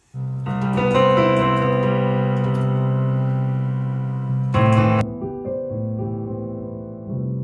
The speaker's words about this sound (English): this is how it sounds when I play my piano.